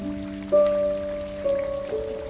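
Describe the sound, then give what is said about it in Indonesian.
Steady rain patters on a surface beneath sustained, droning musical tones that shift pitch a few times; no voices are heard. “Hari hujan datang kepadamu sebagai penyembuh Menyelinap lewat jendela kaca, masuk di lemah hatimu yang tersentuh.”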